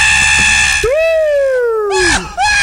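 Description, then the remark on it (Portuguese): A man lets out one loud, drawn-out shout during a recorded police chase; it slowly falls in pitch before cutting off, set against steady, noisy background sound. “É, aí escuta só o grito.”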